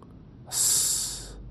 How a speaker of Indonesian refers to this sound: Aku melangkah menuju ruang tengah, tetapi aku mendengar ada suara dengkuran. Aku menoleh ke belakang.